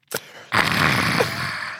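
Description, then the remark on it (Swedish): A person imitates an exaggerated, satisfied exhale after a sip of coffee: a brief click or sip, then a long, loud breathy "ahh" sigh lasting over a second, alone. “Ja, jag satt bredvid en kille på tåget som gjorde, gjorde det här. Tar en klunk och bara...”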